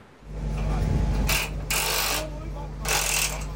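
Pumps pressing water into rock down a 4-kilometre-deep research borehole drone steadily at a low pitch with a constant hum, joined by bursts of hissing, rushing noise that swell and fade in three waves.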